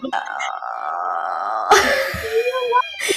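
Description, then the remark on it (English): Children shriek and wail in long, high-pitched cries at home in the background, a sudden louder outburst breaking in midway before the screaming carries on, fairly loud. “is this so topical that you're talking about home and here my children are screaming in the background.”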